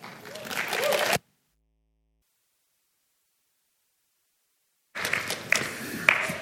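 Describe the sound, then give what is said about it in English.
A church audience clapping as a speaker leaves and the senior pastor comes up to give the message: a dense, steady patter of many hands for about a second, then a gap of silence, then the applause resumes with a few sharper individual claps standing out. “I never know if people are clapping for the person that left or the person that's coming up.”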